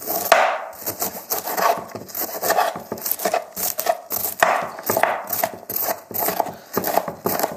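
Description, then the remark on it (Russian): A knife chops peeled shallots on a wooden board, cutting them lengthwise and then into pieces of 2-3 centimetres, in a quick, steady run of sharp thuds, roughly two or three per second, moderately loud with no talking. “Лук нужно очистить от шкурки и нарезать луковицы сначала вдоль, а затем получившиеся дольки на трески 2-3 сантиметра.”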